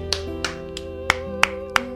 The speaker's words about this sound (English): Wow. Seal clap, seal clap.